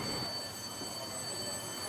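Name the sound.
subway train running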